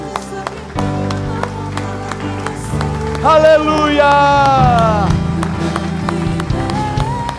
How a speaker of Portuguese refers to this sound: Diga graças a Deus coloque seu envelope no banco e aplauda o Senhor, meus amigos.